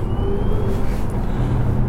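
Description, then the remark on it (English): An electric car accelerating hard in ludicrous mode as it enters a freeway. A loud, steady low rumble of road and tyre noise with a thin motor whine running over it, no voices. “So we're about to um, enter the freeway. And if you just want to put your head back, and you can experience ludicrous mode.”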